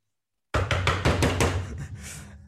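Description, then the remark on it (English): A rapid, forceful burst of about nine loud knocks in an even rhythm, imitating someone pounding aggressively on a house door like the police, with no talking over it. “let me let me imitate your knock yesterday.”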